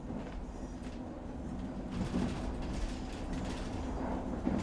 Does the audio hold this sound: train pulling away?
yes